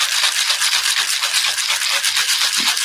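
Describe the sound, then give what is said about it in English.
A cocktail shaker, steel on the bottom and glass on the top, is shaken hard and steadily, producing a loud, bright, rhythmic rattling whoosh that pulses quickly and evenly for the whole stretch, with no talking over it. “So you're going to give it a really good shake.”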